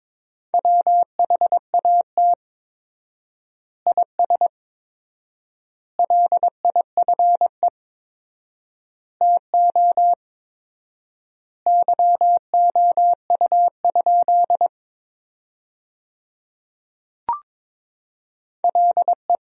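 Steady Morse code beeps at 22 words per minute with 4x word spacing, sending sentences made from the top 300 words, in a single mid-pitched tone, rapid dots and dashes grouped into words with long silent gaps between, plus one brief click partway through; no voices.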